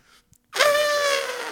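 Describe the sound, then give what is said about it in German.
A person imitates an elephant trumpeting with one loud, brassy blast that starts abruptly after a brief quiet breath and holds steady for about a second. “Elefant kann ich gut.”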